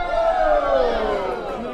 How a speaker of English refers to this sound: So that's the sound of people doing the wave. Which wave? The blue wave.